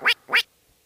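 A little duck quacks twice in quick succession, two loud, nasal calls, followed by silence.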